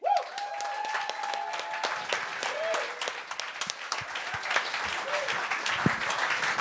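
A crowd bursts into loud, sustained applause, dense clapping lasting several seconds, with a few cheers and whoops rising over it near the start, welcoming the next performer to the microphone.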